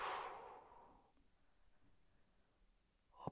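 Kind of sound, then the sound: human body sound, slow exhale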